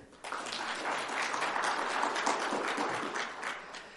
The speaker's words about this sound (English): So let's do a quick survey. Clap your hands if you like the Boston cream.